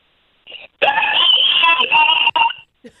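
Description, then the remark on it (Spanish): A person on the radio show Tu Mañana con Enrique Santos imitates a rooster's crow (kikiriki): a short clipped note, then a long, loud, strained warbling cry of about two seconds that breaks briefly before trailing off. “Pero ahora que lo, que lo que quiero es que agarre ahora mismo, que afines y que agarre y que agarres y, que, nos dejes escuchar el kikiriki.”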